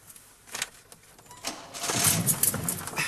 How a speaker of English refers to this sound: Now try again. Start the engine.